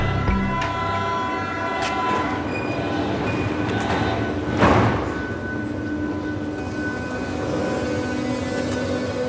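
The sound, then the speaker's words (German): A Berlin U-Bahn train on line U8 rumbles steadily through an underground tunnel beneath the Spree and Alexanderplatz, heading north toward Berlin-Mitte, a dense continuous roar with tonal whines and squeals from the wheels and a brief louder surge midway, no voices. “Am Cottbusser Tor nehmen wir die U-Bahn, die Linie U8 und fahren unter der Spree und dem Alexanderplatz entlang nach Norden, Richtung Berlin-Mitte.”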